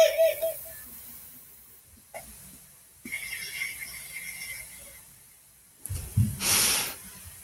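A water sound effect: a loud burst of rushing, hissing water near the end, preceded by quieter scattered hisses and faint breathy noises.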